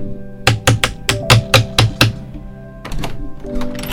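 A rapid series of about seven sharp, loud knocks on a gate, evenly spaced over a second and a half, followed by a quieter metallic rattle and faint background noise.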